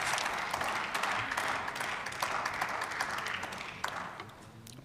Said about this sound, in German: Applaus